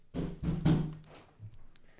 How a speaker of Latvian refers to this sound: Jau nepacietīgs klauvē pie durvīm.